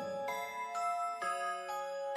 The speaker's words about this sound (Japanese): じーガシャンって冷たいなんか金属音のね、がこう定期的に聞こえてきて、うわー、怖いな、怖いな、これ。